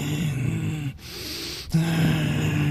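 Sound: imitated heavy breathing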